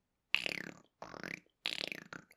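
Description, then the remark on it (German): A person makes a slow, rattling clicking sound with their mouth, a vibrating croak repeated in three short bursts, fairly loud, imitating the slow clicking of the Predator. “Das ist halt so ein langsames ich, Klackern vom Predator.”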